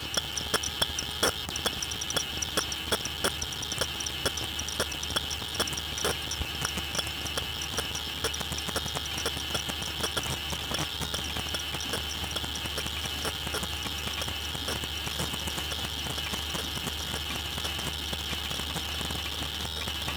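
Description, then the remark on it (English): Faint crackling of condensation on several glasses just rinsed in very hot water, recorded at once: countless tiny ticks and pops in overlapping, irregular rhythms over a steady low hum, with no voices. “the barely audible sounds of condensation on glass just after it's been rinsed in very hot water.”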